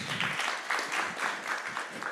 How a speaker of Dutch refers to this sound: Ehm, ja, eh, misschien voor allemaal dan maar een applaus, hè?